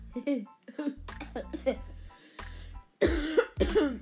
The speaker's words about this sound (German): Muss gerade ein bisschen äh, husten, hupsen, ja, hupsen